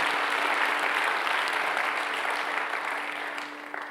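A church audience applauds steadily for a worship leader as he sits down after leading praise, and for God, a dense wash of many hands clapping at a fairly even level, easing off slightly toward the end.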